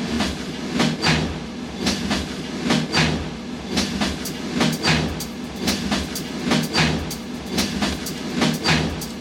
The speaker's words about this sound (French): Ça c'est un morceau qu'il a composé à partir de bruits de train.